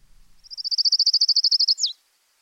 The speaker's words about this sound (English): Colima warbler. It's got a, a, a trill that kind of slows down toward the end, and then it has a very that very distinctive uh, abrupt end.